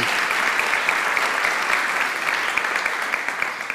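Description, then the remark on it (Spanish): A crowd claps loudly and steadily, dense overlapping hand claps going on for several seconds without pause, a strong round of applause to welcome people following through social media. “¿qué tal si tú das un fuerte aplauso, dar un fuerte aplauso ahí para que las personas que están a través de nuestras redes sociales, oye, se sientan bienvenidos, dáselo fuerte, porque ellos también son parte de esto.”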